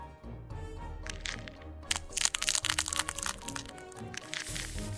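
Duck eggs crack and crinkle as ducklings hatch, in a dense run of sharp, brittle snaps, busiest in the middle and tapering off, over a steady low musical hum with no talking.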